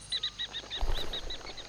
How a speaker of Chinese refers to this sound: 鸟儿扑簌簌展翅而飞的声音，令那女子有一瞬的愣怔。